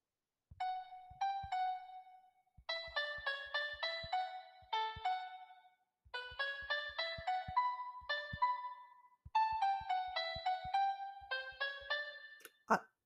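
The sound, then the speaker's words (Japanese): A simple melody picked out on a smartphone piano app, a series of clear plucked notes in short phrases with brief pauses, moderately loud, with no talking. “というわけで、あの、今日夜作業サボってずっとなんかピアノアプリやってたんで、ええ、仕事に戻ります。”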